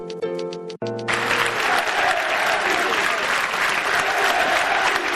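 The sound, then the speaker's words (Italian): A big stadium crowd breaks into loud, sustained applause for its team as it is relegated to Serie B after the match against Sassuolo, a dense steady roar of clapping that holds for several seconds after a brief burst of tonal music at the start. “cosa c'era in quell'applauso che tutto lo stadio ha tributato alla squadra nel momento in cui stava retrocedendo in Serie B dopo la partita con il Sassuolo?”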